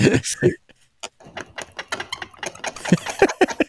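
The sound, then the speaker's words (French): A door creaks and groans in a run of irregular squeals and rasping bursts, some drawn out and some clipped, with brief silences between them, from a musique concrète recording. “un truc de Pierre-Henri qui s'appelle Variation pour une porte”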